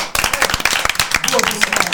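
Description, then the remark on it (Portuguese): The main cast of a series applauds themselves, many hands clapping in a dense, crackling patter that holds at an even loudness throughout, with voices murmuring underneath. “E uh, eu, eu peço um aplauso do próprio elenco para si mesmo.”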